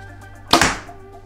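A compound bow fires a single 450-grain arrow, measured at 287 feet per second: one sharp, loud snap of the string that quickly fades, with only a faint steady hum before and after and no talking.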